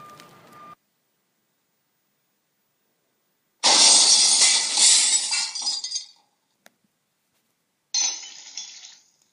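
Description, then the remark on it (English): A brief tone is followed by a sudden loud crash of breaking glass as a house window in Hackney is smashed in by a hand wrapped in a tea towel, with tinkling shards that trail off, then a second, shorter smash and scattering of glass pieces as a glass partition is punched through. No one speaks. “He's just left, so I'm going to I'm gonna wrap my hand in uh, a towel, a tea towel, and smash his window in.”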